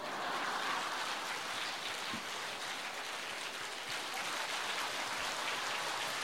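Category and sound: crowd, audience applause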